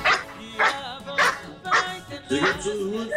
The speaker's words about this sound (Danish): Ja, der har en hund med der også. Det er lyden, det Nej, hvor hyggeligt. Den er sød.